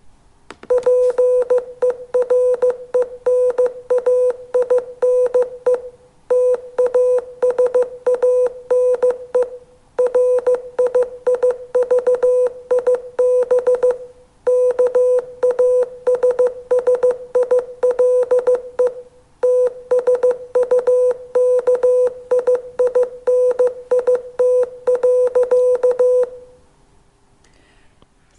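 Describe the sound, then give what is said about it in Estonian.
A single steady tone keyed on and off in short and long pulses, Morse code beeps spelling a five-word sentence, running for nearly half a minute with brief gaps between words, loud and clear with no voices. “siis on lootust, et me võime neid saateid edaspidi morses teha.”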